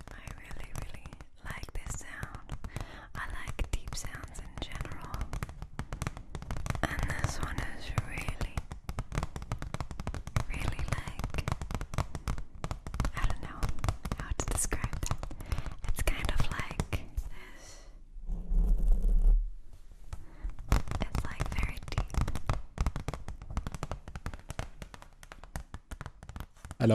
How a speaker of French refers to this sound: Et oui, c'est un extrait de ASMR. Euh, pour, pour, la description, qu'est-ce qu'on entendait Une jeune femme euh, avec ses ongles sur une feuille dure euh, en chuchotant dans un micro.